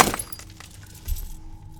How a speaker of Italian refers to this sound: Qu- quando la vedo mi cade. mi cade il cellulare di mano. Poi prendo il manganello e lo uso per spaccare il cellulare con un unico colpo.